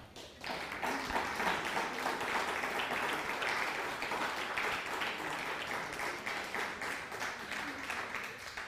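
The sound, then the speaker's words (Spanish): A crowd breaks into sustained applause to greet a viewer watching from Costa Rica, dense overlapping claps holding steady and loud for several seconds with no voices on top. “Un fuerte aplauso a Costa Rica.”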